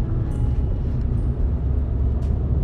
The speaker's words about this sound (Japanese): 途中からはもう、えー、習慣になっていたので車の中でね収録することがほぼ多くなって